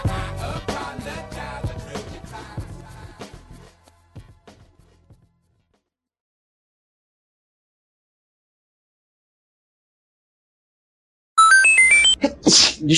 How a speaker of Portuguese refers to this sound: Beleza. Eu vou ver meu espirro no podcast depois.